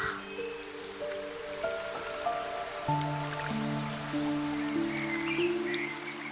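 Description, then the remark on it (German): A small brook lined with large deciduous trees and crossed by a small wooden bridge babbles and trickles steadily at a moderate, even level, with occasional drips and soft sustained tones beneath; no voices. “Ein paar Schritte weiter führt eine kleine Holzbrücke über den Bach.”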